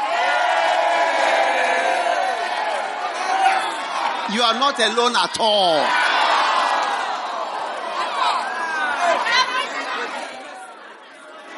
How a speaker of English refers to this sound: But you can hear from the shouts that you are not alone.